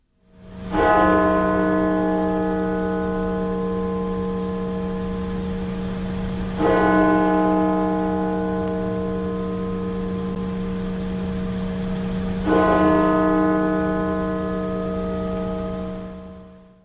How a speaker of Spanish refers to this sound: fue una tarde de duelo aquí en la capital estadounidense, con banderas a media asta y el eco de las campanas de la Catedral Nacional repicando por toda la ciudad.